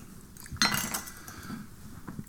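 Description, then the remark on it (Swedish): Drinking glasses holding ginger ale and alcohol-free IPA clink together as they're set down and arranged during a tasting, a few bright ringing taps over soft handling noise, with no one speaking. “För att hålla ordning på glasen här.”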